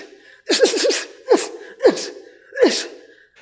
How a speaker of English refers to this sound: But what we did get recorded that was mind blowing for me because I'm not a regular person involved in boxing was we recorded the boxers shadow boxing while practicing their breath. And that was an amazing sound.